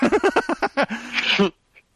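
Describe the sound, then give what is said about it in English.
A voice imitates someone being choked to death by the character Walter, who tells him to stop breathing: a quick run of strained, halting gasps, then a drawn-out raspy wheeze, loud, cutting off abruptly into silence. “He's killed by Walter, who says, Stop breathing and he's like, uh,”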